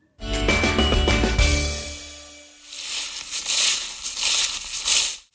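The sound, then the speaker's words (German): A short tonal jingle rings out, then footsteps crunch and rustle through lots of dry fallen autumn leaves on a walk along the Rhine, in steady, crisp bursts, about one every half second, with no talking. “So hat sich das bei mir vor ein paar Tagen angehört, als ich am Rhein entlang spaziert bin. Da lag schon echt super viel Laub auf dem Boden.”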